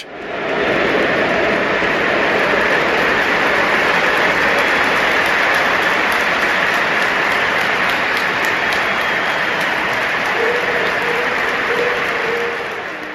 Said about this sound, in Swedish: Ja, applåderna kom i den 20 minuten för att det är tröja nummer 20 som Vinicius Junior bär.